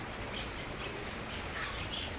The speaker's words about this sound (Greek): Ω, γεια σου παπαγάλε